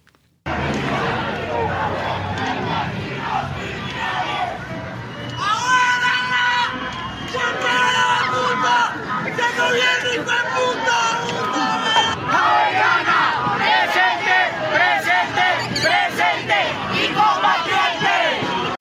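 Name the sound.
protest march crowd chanting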